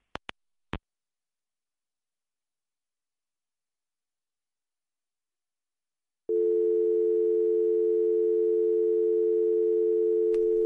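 telephone dial tone

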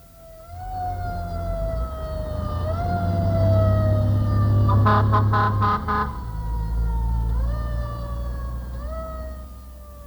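fire engine siren

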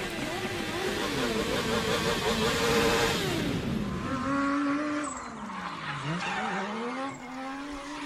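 car skidding

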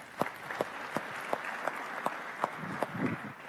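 audience hand clapping

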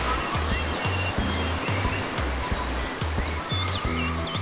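rushing waterfall

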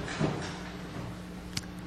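door opening

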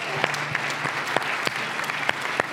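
audience clapping

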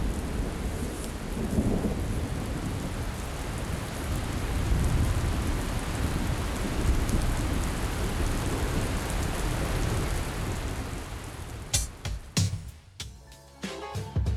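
rain falling

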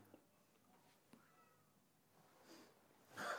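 cat meowing

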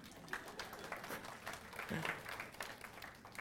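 one person clapping

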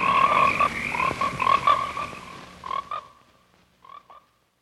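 frogs croaking

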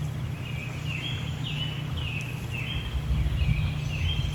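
hooded warbler song

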